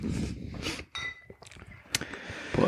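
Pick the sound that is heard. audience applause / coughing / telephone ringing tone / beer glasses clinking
beer glasses clinking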